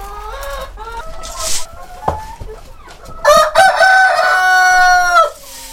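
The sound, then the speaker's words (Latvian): A flock of hens clucks in short, scattered calls as they run outside and grain is scattered for them, before a rooster lets out a loud, drawn-out crow that dominates the second half, with no voices present. “Bļodiņās ir arī sava vistu saime. Cik priecīgi skrien ārā, vai ne?”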